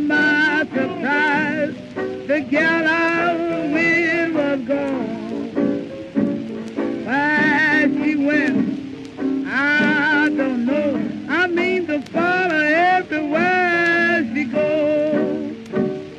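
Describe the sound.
A scratchy old blues recording plays steadily, a woman's voice singing long, wavering lines over a band, with faint hiss of vintage disc noise underneath throughout.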